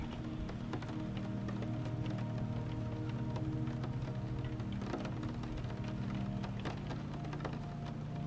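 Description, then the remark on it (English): Steady rain falls and patters on a surface, a continuous wash of droplets with occasional sharper taps, evenly loud throughout with no voices. “You see the rain spilling down from the sky.”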